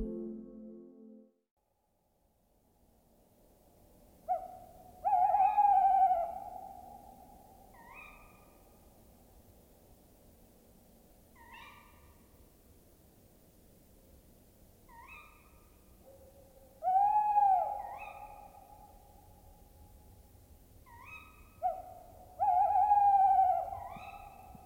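Owls hoot in a quiet night-time setting: three loud, wavering hoots spaced several seconds apart, with softer, higher calls repeating in between. No one speaks.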